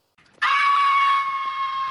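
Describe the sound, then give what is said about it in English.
A cat, apparently caught by coyotes, screams in one loud, drawn-out, piercing shriek that holds steady for over a second, preceded by a brief faint rustle, with no talking. “What the hell sound is that? Coyotes must have got a cat.”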